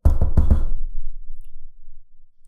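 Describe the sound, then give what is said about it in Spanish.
The dramatic orchestral opening of a Beethoven piece, the short-short-short-long motif called fate knocking at the door: three quick, forceful accented notes and a fourth, heavier one, all loud, then a low held tone that slowly fades away, with no voices. “A lo que Beethoven respondió que es el destino, el destino tocando a la puerta.”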